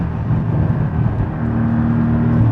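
A sports car engine roars, a loud, deep rumble that holds steady for a couple of seconds with a droning low pitch and no voices over it.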